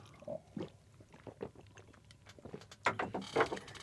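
Wet gulping and swallowing of pale ale, a series of short, moist clicks and gulps with a couple of louder swallows near the end, heard alone without talk.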